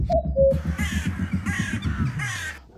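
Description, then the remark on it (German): Three harsh, raspy crow-like caws from a sampled bird call ring out in quick succession over a low, pulsing rhythmic drone, preceded by a couple of brief high whistled tones. “Wenn die Musiker, die dachten dann alle, ja, ich muss eine Hupe samplen und ein Vögelchen, Kuckuck und so.”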